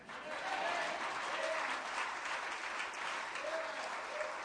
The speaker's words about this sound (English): Clap your hands and shout amen.